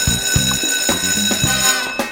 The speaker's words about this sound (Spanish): suena el timbre aquí en la Academia de Emprendedores y eso significa que comienza una nueva clase de este curso llamado TI Habilitador de la Innovación para los Negocios.